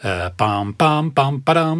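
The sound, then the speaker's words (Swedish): A lone voice sings a short, bold melodic phrase on nonsense syllables, five punchy sustained notes stepping in pitch, clear, imitating the heroic theme from a Spider-Man film. “Det ska vi ha i bakhuvudet då, det här hjältetemat. Låter så här.”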